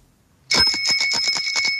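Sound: bicycle bell ringing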